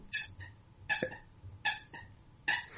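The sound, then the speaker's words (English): Four sharp, bright squeaks from a squeaky toy being chewed by a dog, spaced at a fairly steady pace, with quiet low rumbling between them and no talking. “That's a squeaky no, toy. Squeak toy. Oh, no, squeaky toy.”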